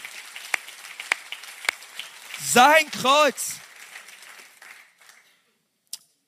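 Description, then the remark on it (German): An audience applauds Jesus for his cross in a steady, crackling wash of many hands, with a man's voice calling out briefly over it before the clapping fades away. “Oh, komm on, lass uns Jesus mal einen Applaus geben für sein Kreuz.”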